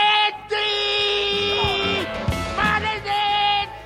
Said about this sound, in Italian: Mi verrebbe da dire cacciare un urlo. Eh? Un urlo...